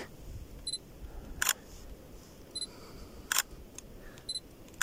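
A camera taking pictures at the Königssee: brief high-pitched focus beeps, each followed by a sharp mechanical shutter click, repeated about three times over a quiet low rumble, with no one talking.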